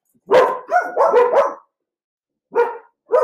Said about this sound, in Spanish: Perdón, alerta de perros.